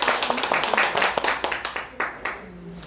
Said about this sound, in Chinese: 哎，大家给领导一个掌声。